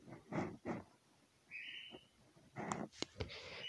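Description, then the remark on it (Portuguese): A small bird calls out in a brief, bright whistled note, set among several louder, rougher bursts of sound, with no talking. “Esse passarinho fica gritando.”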